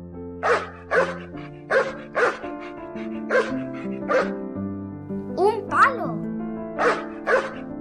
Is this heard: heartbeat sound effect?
no